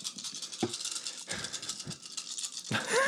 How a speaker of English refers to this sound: All right, go ahead and roll them bones. Roll all that.